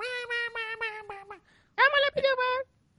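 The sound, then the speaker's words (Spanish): A voice imitates a sped-up song with squeaky chipmunk-style singing: a high, nasal wordless melody in two bursts, a steady run of choppy notes, a brief pause, then a louder, brighter phrase. “Entonces, acelerarla para que se apitufe la voz.”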